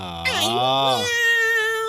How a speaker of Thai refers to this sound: โอ้โเสียงลูกเสือเหรอ ลูกเสืออะไรล่ะ มันคือแมวแต่ว่าเป็นสัตว์ในตระกูลเสือเหมือนกัน